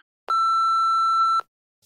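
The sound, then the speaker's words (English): A single steady voicemail beep, signalling the caller to leave a message, rings out for about a second, clear and fairly loud, starting and stopping abruptly with nothing else around it. “You're going to leave a message after the beep and you're going to tell us why someone should date you.”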